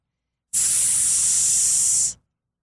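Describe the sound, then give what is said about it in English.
Water sprays from a garden hose into a big basin in a yard, in one loud, steady, bright hiss lasting about a second and a half, starting and stopping abruptly with no voices. “They sprayed water into the basin.”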